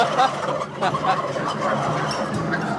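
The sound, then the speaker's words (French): A flock of turkeys gobbles together in a dense, overlapping chorus, bursts of warbling calls rising and falling continuously over a steady outdoor background. “Pourquoi qu'ils partent tous à, faire des trucs en même temps? Comme ça, c'est. C'est typique, c'est typique à Odindon, là. Ils se parlent.”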